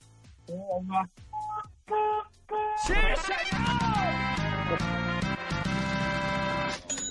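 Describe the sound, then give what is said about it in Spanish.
A car horn honks three times in short, evenly spaced blasts, sounded by a radio caller in his car to prove he is listening to Exa FM, then a voice calls out over lively music that continues to the end. “acá mi productor eh, me pide que toques el claxon tres veces para comprobar que vas en tu auto escuchando la estación naranja.”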